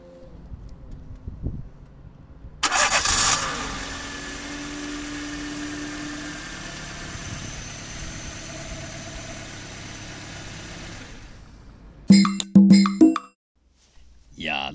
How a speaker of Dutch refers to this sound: dat was het typische geluid van eh, de 1.2 liter Twingo motor met het vrolijke startmotortje. Ik word er wel, eh, wel warm van. Ik werd er zelfs een beetje emotioneel van.